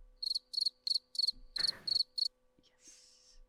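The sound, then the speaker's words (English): A cricket chirping sound effect played from a computer soundboard, in a quick, regular series of bright, shrill pulses, clear with no talking, ending in a short burst of noise and a few faint clicks. “Now that whenever you start thinking, I'm gonna use that cricket like sound effect.”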